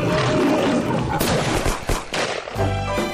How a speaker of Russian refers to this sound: Я только сейчас услышал, что там львы какие-то водоплавающие. Конечно. Там явный всплеск воды.